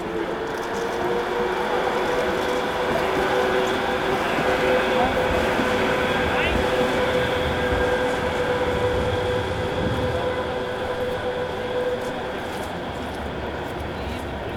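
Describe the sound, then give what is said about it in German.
A tram rumbles loudly past between the Roland and the town hall in Bremen, Germany, its steady roar carrying a faint metallic whine that holds for the whole stretch without fading away. “zwischen Roland und Rathaus rauscht immer mal wieder eine Straßenbahn.”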